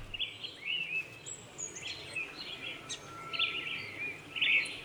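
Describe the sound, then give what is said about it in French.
Several birds sing and chirp at once outdoors at Piedra Alta, Chile, bright overlapping calls and short whistles continuing steadily over a soft low background hum, with no voices. “Alors on va écouter un son, donc c'est les, oiseaux à, à Piedra Alta.”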